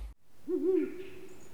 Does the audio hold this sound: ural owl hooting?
yes